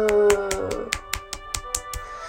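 A quick, steady run of about a dozen sharp hand claps, evenly spaced, with a sustained musical tone humming underneath and no talking.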